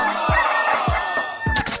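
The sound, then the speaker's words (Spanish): A rooster crows loudly, a harsh, sustained call filling the moment, with a few low, rhythmic thumps underneath and brief noisy bursts near the end. “¿Sabías que los gallos no pueden cantar si no extienden sus cuellos?”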